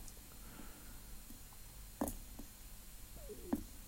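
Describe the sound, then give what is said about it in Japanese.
Water coming to a boil: a low, steady rumble with a few scattered bubbling pops, recorded up close but fairly quiet, with no one talking. “なんかボコボコいってる。”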